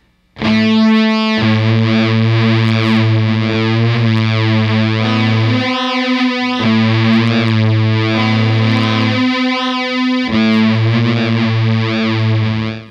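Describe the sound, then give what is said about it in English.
A loud, heavily distorted electronic tone from a guitar effects pedal wails with rising and falling pitch sweeps like an air raid siren, droning continuously over a steady low bass note, with no voices. “it has this sort of like air raid siren yeah. kind of quality.”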